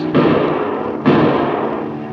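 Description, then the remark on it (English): Two loud rifle gunshots fired at an approaching airplane, about a second apart, each a sharp crack followed by a long, rumbling decay that fills the gap. No voices are heard. “Fire now or you may hit Chuck.”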